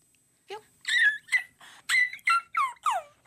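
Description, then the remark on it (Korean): A person imitates a whimpering puppy getting an injection at the hospital, with a series of high, squealing yelps and whines, about seven short cries in quick succession, fairly loud, with no talking. “주사 맞는 아파서 아, 주 병원 가서 주사 맞는 강아지.”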